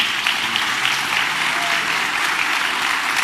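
A church audience applauds to the Lord for a pastor, with steady, dense clapping that holds an even level throughout, many hands blending into a continuous crackling wash with no voices standing out.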